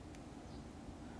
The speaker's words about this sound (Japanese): 今昼間で外の気温が30度なのでエアコンつけてるんですけどとかエアコンの音が入ってたら